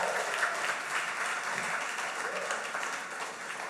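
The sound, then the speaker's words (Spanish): A church audience breaks into sustained applause during a sermon, dense clapping mixed with cheering voices, loud and steady for a few seconds without a break. “Nosotros estuvimos, vamos a dar una bulla, una, dos y tres.”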